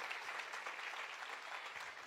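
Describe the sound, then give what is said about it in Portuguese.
A church audience applauds Jesus steadily, a dense wash of many hands clapping at an even, sustained loudness throughout, with no voices standing out. “Então vamos aplaudir Jesus pelo que ele tem feito no nosso meio.”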